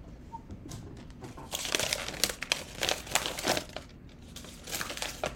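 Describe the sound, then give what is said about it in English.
A piece of paper being crushed, crumpled and crinkled, a dense run of crackling rustles that starts softly, swells into busy crunching bursts, pauses briefly, then resumes. No one speaks. “I want you take a piece of paper and crush it.”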